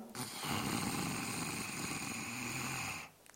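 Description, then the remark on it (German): A person imitates a snore on one long, rasping inhale lasting about three seconds as a breathing exercise for the voice and throat, steady in loudness before cutting off into quiet. “Also beim Einatmen Schnarchklang.”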